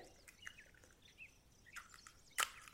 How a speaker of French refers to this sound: Je casse mes deux œufs. Quand je casse mes œufs, je fais toujours ça sur mon plan de travail.